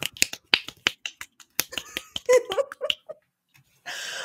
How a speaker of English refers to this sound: I thought you were snapping your fingers, and I didn't understand why.